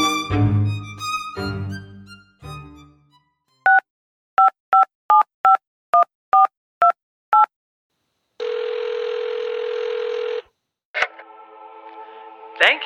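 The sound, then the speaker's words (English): A quick series of about ten short, evenly spaced telephone keypad beeps dialing the Vatican Helpline, followed by a long steady line tone with a hiss, after some brief tonal sounds at the start. “for calling the Vatican Helpline.”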